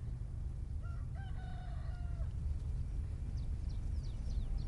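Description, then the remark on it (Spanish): A rooster crows once in the morning near a volcano, a drawn-out harmonic call lasting about a second and a half, over steady low outdoor rumble with faint bird chirps afterward. “Parece que lo tenía pactado con el gallo, pero no, no lo tenía pactado no pactamos eh, estas cosas, ¿no?”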